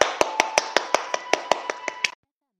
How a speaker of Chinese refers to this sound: 掌声有请。